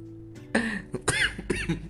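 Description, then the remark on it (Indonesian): A person coughs in a short run of raspy coughs, three or four harsh bursts in quick, uneven succession, with no talking in between. “jadi batuk tuh kan jangan-jangan gue covid nih”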